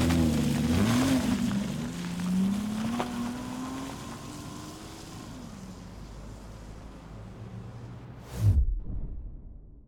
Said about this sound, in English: he hops into his little black BMW hatchback. He turns the ignition and burns off out of the Southern Reserve car park and into the night.